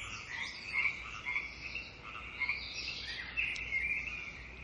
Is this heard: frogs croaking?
yes